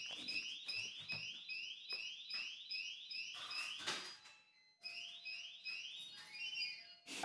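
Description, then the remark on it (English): A shrill electronic alarm beeps in fast repeating chirps, loud, with a few sharp clattering knocks mixed in and a brief pause before the beeping resumes. “my take my my take was getting so yeah. fiery that the freaking alarm.”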